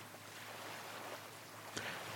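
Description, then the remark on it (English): A soft, continuous wash of sea waves rolling in at a beach at night, steady and low, with one brief louder surge near the end and no voices. “Afterwards, Troy parks his cab at the beach and they look out into the blackness of the sea.”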